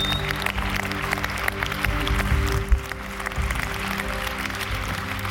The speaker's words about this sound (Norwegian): Skal vi gå inn i en, eh, skal vi gi en klapp til de to som responderte? Så flott.